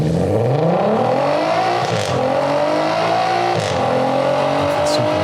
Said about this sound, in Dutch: vind het echt mooi. Ja, is mooi. Nee, dat was die eh, VR6 van Skoda.